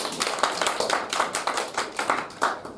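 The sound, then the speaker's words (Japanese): A small group at a regular lecture claps steadily for a few seconds to welcome a newly introduced company officer, a dense patter of sharp hand claps with no voices over it. “拍手でお願いします。”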